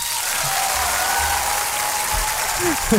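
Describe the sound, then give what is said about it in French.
An applause sound effect played on a morning radio show to congratulate a contest winner: a crowd applauds steadily for the whole stretch, a dense, even wash of many hands clapping at a constant loudness, with a faint voice briefly audible underneath near the end. “Attends, je... voulais mettre euh, des, personnes qui applaudissent.”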